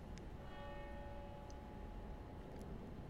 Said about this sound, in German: Dann äh, ist es jetzt tatsächlich auf dem Punkt genau. Es hat die Glocke geläutet, also es ist wirklich äh, perfekt.